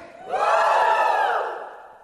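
A crowd of people, told to lift their right hands and shout, shouts "woo" together in one sustained, swelling roar that rises sharply, holds loud for about a second, then slowly fades; no speech is heard over it.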